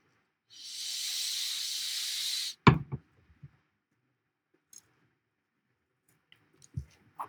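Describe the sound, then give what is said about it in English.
Someone sips a West Coast-style beer called Cypress: a steady, fizzy hiss for about two seconds, then a sharp clink and a few soft slurping sounds, with a faint thump near the end. No one speaks. “I will, but can we take a sip first?”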